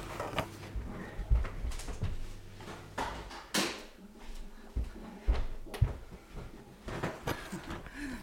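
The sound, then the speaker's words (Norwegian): A dishwasher door is opened with a series of clunks, clicks and rattles. A low machine hum underneath cuts out partway through, leaving quieter handling sounds. No one speaks. “Jeg skal bare ta opp døra på en oppvaskmaskin, for jeg liker ikke lyden.”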